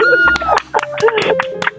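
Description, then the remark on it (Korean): A brief burst of uneven hand clapping from a few friends, about eight sharp claps in under two seconds, mixed with voices and laughter. “어, 친구들이 그래도 박수 쳐주고 호응도 많이 해주네요.”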